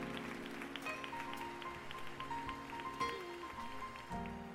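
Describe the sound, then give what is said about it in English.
A church audience applauds in praise after the sermon, a steady, dense wash of clapping that fills the whole clip, with sustained organ-like chords holding underneath. “Give God a hand of praise for the message on today.”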